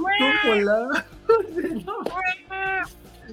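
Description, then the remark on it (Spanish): A voice imitates a fighting kitten: a string of whiny, rising meows and a brief growling yowl in quick succession, fairly loud. “pretende que eres un gatito peleando para que ellos estén tranquilos.”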